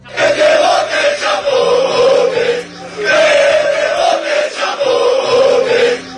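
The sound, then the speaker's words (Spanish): A large crowd of football fans celebrating Granada Club de Fútbol's promotion to Primera chants "Que te vote Chapote" in unison, loud, repeating the same rhythmic phrase twice with a brief dip between rounds and a dense roar underneath. “Se oye en las celebraciones del ascenso del Granada Club de Fútbol a Primera.”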